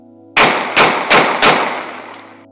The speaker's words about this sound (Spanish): Luego de bloquear la guagua, Menor se bajó del auto, se acercó a la guagua que conducía Stefano y le hizo cuatro disparos.